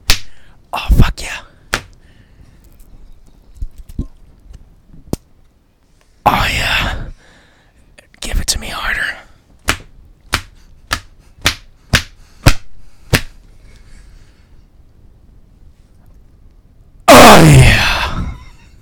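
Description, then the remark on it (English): Sharp whip-like lashes and slaps crack out, first scattered, then in a quick, evenly spaced run of about eight loud strikes, with breathy groans or sighs between them. “I'm gonna whip you while you do it.”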